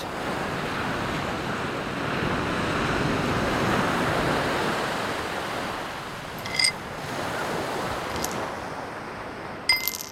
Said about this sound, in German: liebt das Meer und die See, besonders wenn sich sanfte Wellen am Rand brechen und es dieses leichte Glucksen gibt.